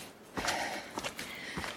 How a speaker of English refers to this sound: It's steep and it's high, my breathing strained as I plod forward one step at a time.